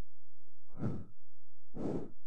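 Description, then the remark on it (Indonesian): Two breath bursts blown into a microphone pop filter to test it, each about half a second long and a second apart, airy and fairly loud, with a low steady hum underneath and no talking. “Coba lu napas.”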